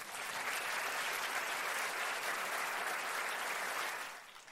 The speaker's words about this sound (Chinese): 所以我也看到在台湾呢，有很多伙伴已经准备要成功了，因为听讲很多伙伴呢都跟了我们市场的这个活动嘛，对不对？有没有在这里？哇，给他们一个掌声好不好？